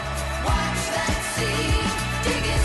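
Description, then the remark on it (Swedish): A pop song plays at full volume, with a steady thumping beat, sustained synth or guitar chords and a bright vocal-like melody throughout, with no talking over it. “Det är samma låt! Det är totalt samma låt.”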